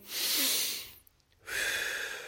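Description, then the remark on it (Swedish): A long, deep breath drawn in, then a brief pause and a steady, airy breath let back out. No one speaks. “Andas in.”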